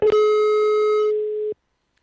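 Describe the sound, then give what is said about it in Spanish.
A sharp click, then a single steady telephone busy tone hums loudly for about a second and a half before cutting off abruptly as a phone call drops during a Radio María call-in program, with no voices present. “Se nos ha cortado la llamada un segundito.”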